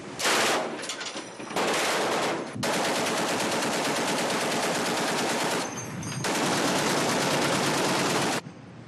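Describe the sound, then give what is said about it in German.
Long bursts of heavy machine-gun fire from the frigate Augsburg at an approaching speedboat during a speedboat-defence exercise, loud and rapid, rattling in sustained strings with a couple of brief pauses between bursts. No one speaks. “Daher schließlich der Feuerbefehl.”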